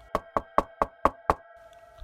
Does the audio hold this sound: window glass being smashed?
no